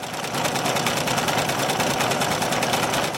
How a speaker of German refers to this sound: Und gerade zu dieser Zeit muss der schintilla mitarbeiter Albert Kaufmann seiner Frau beim Nähen an der Nähmaschine zugesehen haben, dem schnellen Auf und Ab der Nadel.